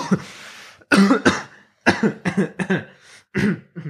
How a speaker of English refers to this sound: I'm sorry, my uh, I have a cough right now.